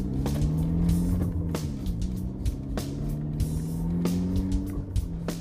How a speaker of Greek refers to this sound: Χωρίς να σβήσει τη μηχανή, άφησε το αμάξι έξω από την είσοδο και μπήκε στο υποκατάστημα, που εκείνη την ώρα είχε αρκετό κόσμο.